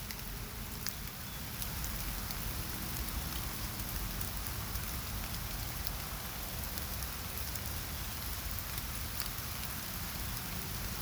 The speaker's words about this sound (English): Can you hear the raindrops?